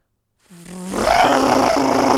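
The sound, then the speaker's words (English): A voice imitates a motorcycle roaring past a car on the highway, starting as a low buzzing hum after a brief silence, then swelling quickly into a loud, raspy, sustained roar. “I hate motorcycles.”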